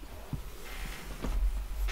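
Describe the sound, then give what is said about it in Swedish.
Faint, irregular creaks from a chair shifting under someone's weight, a few soft strained pops over a low background rumble, with no one talking. “Det knarrar.”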